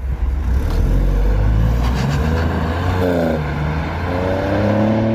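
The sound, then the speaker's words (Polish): A car engine rumbles loudly and steadily, its exhaust growling deep, with rising harmonic sweeps as the revs climb and shift. No voices are present. “I to był dźwięk samochodu”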